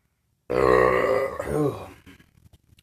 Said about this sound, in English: Dude, when I burp, it tastes like hazelnuts. Nice. it tastes nice. Like, it tastes like it tastes like Nutella.